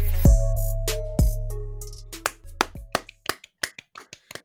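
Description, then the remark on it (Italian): Scattered applause from a few pairs of hands: sharp, uneven claps that start sparse and quicken into a loose patter, with a low sustained hum underneath at the start and no talking. “Applausi, appla- qua ragazzi no.”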